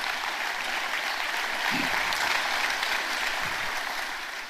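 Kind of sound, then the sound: crowd, audience applause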